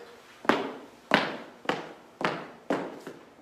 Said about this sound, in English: I don't want to hear you stomping either.